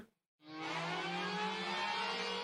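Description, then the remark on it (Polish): A loud alert siren blares continuously, a sustained wailing tone with rich harmonics that starts abruptly after a brief silence and holds steady and dominant, with no voices. “Tam, gdzie również słychać ten alert. Słychać jak on, jak on dmi i prawdopodobnie będziecie go słyszeć jeszcze przez jakiś czas.”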